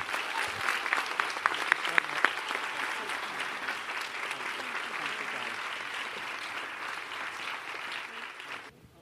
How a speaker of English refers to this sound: make it to the lectern before the applause stops, but I'm getting old.